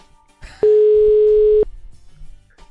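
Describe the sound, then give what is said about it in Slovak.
A single telephone ringback tone sounds while an early-morning call is placed to wake someone: one steady, loud, mid-pitched beep lasting about a second, with faint rustling before and after. “Poďme volať.”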